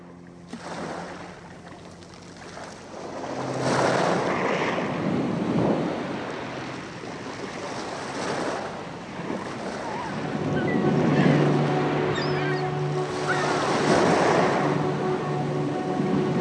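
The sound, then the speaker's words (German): Ocean waves wash onto a sandy beach in slow, repeating surges, each swell rising and fading over a few seconds, with a faint steady low hum underneath and no talking. “Am Strand mit der Möwe Woja.”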